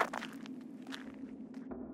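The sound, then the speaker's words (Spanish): Footsteps walk at a steady pace at the side of a road toward the back of a vehicle, each step a soft crunching scuff, over a constant low hum. No one speaks. “así que me detuve a un lado de la carretera y salí. Caminé hasta la parte de atrás.”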